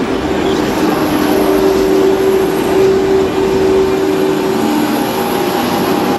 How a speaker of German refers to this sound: Ich befinde mich hier live am Bahnsteig 5 und 6 am Mannheimer Hauptbahnhof sehr voll laut und gefährlich.